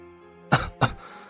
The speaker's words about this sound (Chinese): 不禁坐正了身子，不自然的咳嗽了两声。